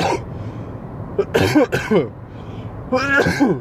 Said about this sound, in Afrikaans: Ek ja sê jammer ek hoes so in julle ore. Um ähm, die aircon blaas nou seker hier in my gesig en dis hoekom ek nou eers weer begin hoes al soos ek gesê het ek is besig om 'n verkoutjie te ontwikkel.